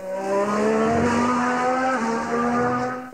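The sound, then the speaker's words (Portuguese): A racing car engine roars loudly and steadily, its high-pitched whine holding a fairly constant tone with a slight dip in pitch partway through, continuous, with no voices. “Sim, Carro é outra grande paixão dos italianos.”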